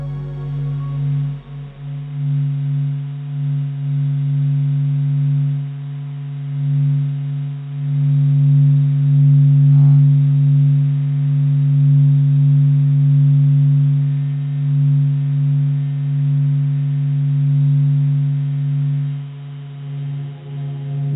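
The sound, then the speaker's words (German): A steady, droning electronic hum holds a low pitch with faint harmonics above it, wavering slightly over about twenty seconds. It is electromagnetic waves from the Sun, capturing its movement, waves, loops and eruptions, converted into sound. No voices. “Das war Radio Sonne.”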